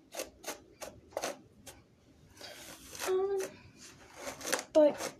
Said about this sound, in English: Yeah, okay. So, I'm done brushing my hair.